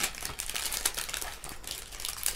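Crinkly rustling of sheet mask packaging, a steady run of crackling, papery plastic crumples with small sharp bursts, fairly soft and continuous with no voices.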